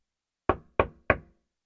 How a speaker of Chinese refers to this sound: 有人敲猫头鹰博士的门呢，把正在专心苦思的猫头鹰博士哦吓了一大跳。